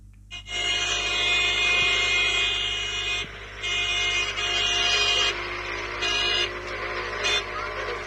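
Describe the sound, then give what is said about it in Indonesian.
A vehicle chase caught on video: a car chasing a motorcycle-riding suspect, its loud engine whine roaring continuously, surging and dipping in several bursts, with a harsh, horn-like tonal edge and no clear speech. “si istri yang rekam, yang suami yang ngejar, eh, yang nyetir mobil gitu ya, ngejar uh, pelaku begal payudara yang mengendarai sepeda motor.”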